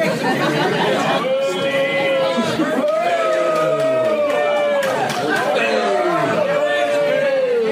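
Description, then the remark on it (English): A crowd at a live show boos loudly and without a break, many voices holding long, low, wavering "boo" tones that swell and overlap for the whole stretch, with scattered shouts mixed in. “and then all the booing this is the big big boo here.”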